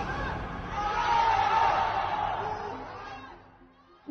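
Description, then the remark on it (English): Many residents of Wuhan, confined to their homes during the coronavirus outbreak, chant "Come on, Wuhan" together from apartment windows, echoing across the buildings; the rousing chorus swells in the middle, then fades away near the end. “Come on, Wuhan, they shouted from the windows of the homes many are all but confined to.”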